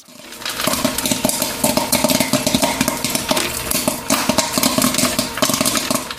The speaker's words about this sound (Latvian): Nu, kas tur paukšķēja? Popkorns. Jā, popkorns.